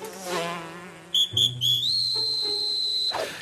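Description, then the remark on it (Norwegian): The voice of the main ant character in an animated 3D film, made of shrill referee-whistle tones: a few short toots, then a long rising whistle held steady, over a soft musical background. “Hovedmauren høres ut som en dommerfløyte, mens marihøna lager lyder som en 17. mai-tuter.”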